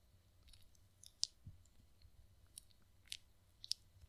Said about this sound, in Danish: Hey, vi kan høre det der i mikrofonen i dine øjne. Du, du gnider dine øjne.